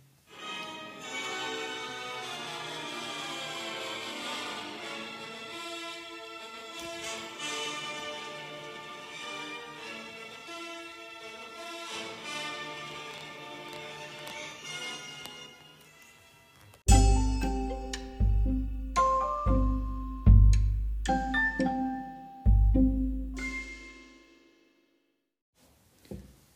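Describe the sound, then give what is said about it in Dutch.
Orchestral music from Richard Wagner's opera The Flying Dutchman (De Vliegende Hollander) plays alone: a steady, sustained passage of layered strings and winds, then heavy accented chords with booming low brass and percussion crash in dramatically before fading. “En qua muziek moet ik heel eerlijk zeggen dat ik zelf alleen Richard Wagner weer ken. Met zijn opera De Vliegende Hollander. En daar gaan we nu een klein stukje weer naar luisteren.”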